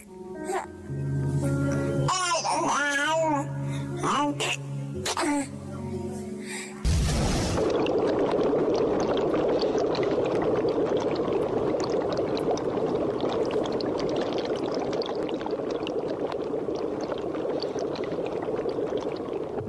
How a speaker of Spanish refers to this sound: Bueno, estamos escuchando un ambiente de efervescencia química, ¿no? Como de un laboratorio. Estamos en un laboratorio, es un laboratorio particular, eh, en donde se procesan muestras de ADN.